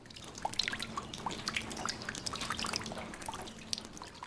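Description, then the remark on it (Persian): Water dripping steadily, a rapid scatter of small bright plinks and drops over a constant low trickling wash, with a faint steady hum underneath and no voices. “چه جالب درست میگی ما تو فارسی به این صدا میگیم چک چک”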